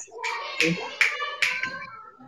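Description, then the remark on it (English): Children making noise: high-pitched, wavering vocal squeals and cries with three sharp bursts in quick succession, fairly loud, with no clear words. “Sorry, lots of noise from the children.”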